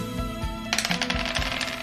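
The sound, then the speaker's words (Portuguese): A pair of dice is rolled in a tabletop game, rattling and clattering across a hard surface in a quick run of sharp, bright clicks and taps that starts abruptly and keeps tumbling briefly before settling on a 5 and a 4. No one speaks. “Certo. Dois dados.”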